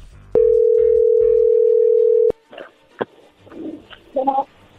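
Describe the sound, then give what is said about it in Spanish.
A single steady telephone ringback tone sounds for about two seconds and cuts off sharply, followed by soft clicks and faint bird-like chirps in the background. “bueno, a ver, allí entró la llamada, no hagan ruido.”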